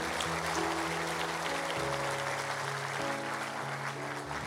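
A church audience claps steadily and continuously in applause for Jesus, a dense wash of hands, while sustained keyboard chords play underneath.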